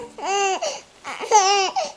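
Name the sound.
infant crying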